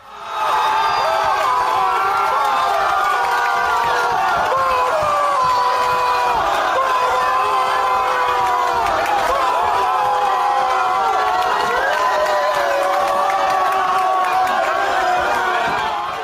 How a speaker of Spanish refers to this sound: Este es el sonido de la euforia de la celebración ayer por parte de la plantilla de unionistas de Salamanca. Ya lo escuchaban el momento del sorteo en el que salía la bola del conjunto salmantino